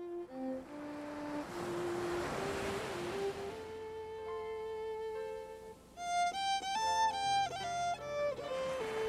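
A single ocean wave surges in and washes back early on along the shore of Maine, its hiss rising and fading beneath a gentle melodic music track that continues afterward.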